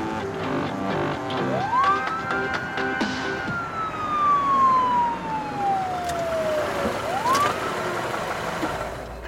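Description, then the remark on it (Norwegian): A police car siren wails in long, slow sweeps, climbing, gliding gradually down, then rising again, loud over a steady rumble of traffic noise. “Og det som da skjedde når, eh, når vi var på tur til denne MC-klubben her, var at plutselig bak meg så ser jeg eh, blålys ifra en politibil.”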